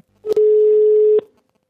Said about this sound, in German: So, und jetzt pass auf, jetzt rufen wir den Adrian Rosconi an.